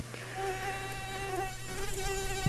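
A mosquito whines steadily for a couple of seconds, a thin high-pitched buzz that wavers slightly in pitch over a low background hum, with no voices.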